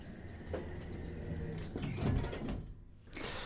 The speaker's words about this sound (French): la porte se ferme.